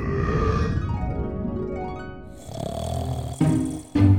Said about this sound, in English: When the air started to rumble with giant snores, Jack picked up the goose and the harp and ran out of the house as fast as his legs would carry him.